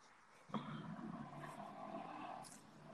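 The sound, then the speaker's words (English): Cars, among them a Subaru, a Toyota and a 2015 Hyundai Sonata, pass in the background, the steady road and engine noise of one vehicle rising suddenly and then holding as a low, continuous wash for a few seconds, with no one speaking. “Can you hear the cars that are going on in the background?”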